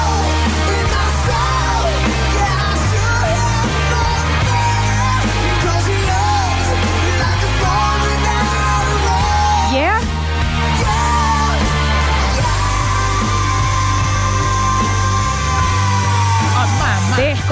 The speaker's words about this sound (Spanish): dos gargantas excesivamente poderosas para pegar esos gritos de amor o desamor desesperado